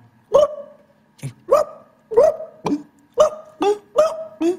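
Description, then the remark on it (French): A dog, wanted as the sound of a Kabyle dog that has not eaten for a long time and is thirsty, gives a rapid series of about eight short, sharp barks with a yelping, whiny edge, fairly loud, with no talking. “Un, Tiens, un chien, un, un chien qui n'a pas mangé depuis longtemps, un chien qui a soif.”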